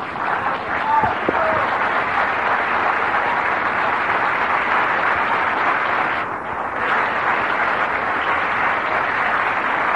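A large crowd applauds steadily for the full stretch, a dense, loud wash of clapping that briefly dips near the end before swelling again.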